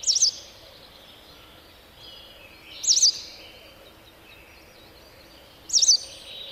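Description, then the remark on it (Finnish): A white wagtail gives three short, high chirping calls spaced a few seconds apart, clear over a soft outdoor background hum. “Västäräkki, perkele.”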